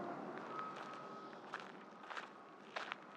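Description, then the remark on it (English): A handful of footsteps crunch at an unhurried, uneven pace along a road closed to cars and covered with loose dirt about a foot deep instead of tarmac, against a steady outdoor background hum with a faint high tone near the start. “I walked along a road that had been closed to cars.”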